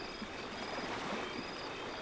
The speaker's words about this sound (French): Toujours sur la plage, percé par la rythmique des vagues.